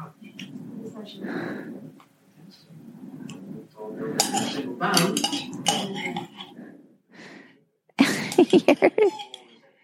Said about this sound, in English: Ice cream eating is so noisy. mean, I try to get every bit.